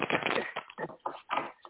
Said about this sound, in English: Okay. One more shuffle. And see what comes out in the cards